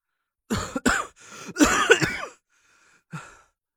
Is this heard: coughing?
yes